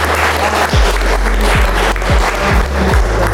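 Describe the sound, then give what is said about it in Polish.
An audience applauds after a theatre performance of dialogues from the novel Nad Niemnem at a Polish literary meeting in Równe (Rivne), a dense, steady wash of many hands clapping at an even loudness for the whole stretch, with no voices standing out. “Pięknie wyreżyserowane przedstawienie z dialogami bohaterów powieści nad Niemnem zauroczyło obecnych, którzy nie szkodowali aplauz.”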